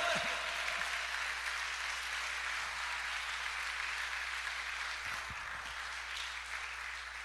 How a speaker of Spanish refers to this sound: Dele un aplauso al Señor es fuerte.